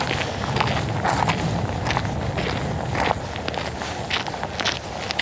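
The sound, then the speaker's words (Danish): Footsteps walk steadily onto a bridge at Årslev Engsø, a regular rhythm of crunchy, scuffing steps over a constant low rumble of outdoor background noise, with no one speaking. “Nå, vi kan lige gå hen og stille os på, øh, på broen her og kigge ned i, øh, ned i Lyngby og se, om der skulle være et eller andet spændende at få øje på herhenne.”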